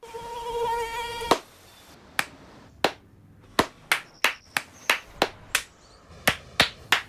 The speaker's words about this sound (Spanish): No aplaudamos al mosquito, combatámoslo en serio.